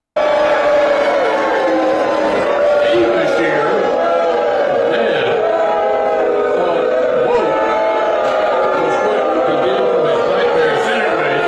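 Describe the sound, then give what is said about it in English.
A large audience of right wingers and left wingers boos Mitch McConnell loudly and continuously, a dense, sustained roar of many voices with wavering pitch, going on steadily for the whole stretch. “there are right wingers and left wingers in that audience holding hands, booing Mitch McConnell.”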